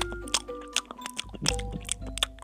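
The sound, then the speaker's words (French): Loud, deliberately exaggerated open-mouthed chewing of soft banana, the banana rolled around and mashed in the mouth with saliva, with wet smacking and squelching sounds repeating in a steady rhythm about every half second, and no talking. “Genre, je mangeais la bouche grande ouverte, je mâchonnais, je faisais.”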